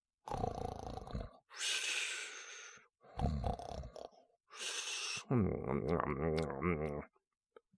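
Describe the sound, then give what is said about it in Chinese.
A voice imitates the loud snoring of Zhu Gangliang asleep on a stone bed in a cave: rattly, rumbling snorts alternate with hissing breaths in a slow rhythm, ending on a long, groaning voiced snore. “这时啊，那朱刚烈正躺在洞里的石头床上打着呼噜睡大觉呢。”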